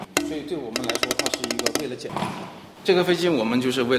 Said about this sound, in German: nimmt eine der Drohnen vorsichtig in die linke Hand und klopft auf den Flügel.